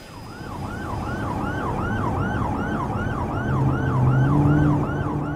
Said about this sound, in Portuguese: Dois carros, em marcha de emergência, fazem a curta viagem do aeroporto até ao centro da cidade.